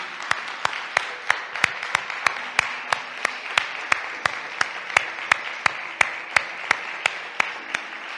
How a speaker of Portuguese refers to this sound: E dê um aplauso a esse rei que temos maravilhoso.